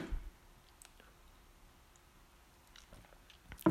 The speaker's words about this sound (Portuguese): Pausa para golinho de água.